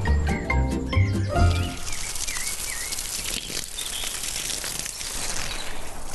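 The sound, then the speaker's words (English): A steady hiss of water from a garden hosepipe splashing onto dry garden soil after a 30-degree day, with birds chirping faintly and a brief burst of tonal sound at the start. No one speaks. “Ah, the thunderous sound of the hosepipe slapping the dry soil.”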